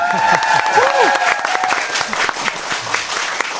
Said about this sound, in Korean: 여러분들 저 어, 초대돼서 오신 분들 백그라운드 하길 잘하셨나요? 네. 네. 그랬다면 큰 박수 한번 보내주세요.